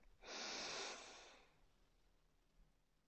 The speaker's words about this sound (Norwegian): Når jeg nå puster inn, så får jeg altså oksygen til hele huden min, i hele kroppen. Pust inn i nesen.